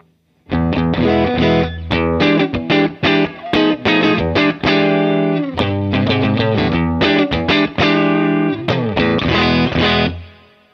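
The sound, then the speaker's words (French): A clean electric guitar on the neck pickup, using the clean sound of a V-Twin Kelt with a little reverb added on the mixing console, plays a steady run of chords and single notes for about ten seconds, fairly loud, with a light reverb tail and no voices. “Le son clean de référence, c'est le son du V-Twin Kelt, repris par la auxbox et j'ai mis un tout petit peu de reverb sur la, sur la console de mixage histoire d'avoir un peu d'espace.”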